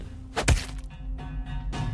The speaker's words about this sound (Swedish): Han fattar kofoten med båda händerna och utdelar två dödande slag mot hennes kropp och huvud.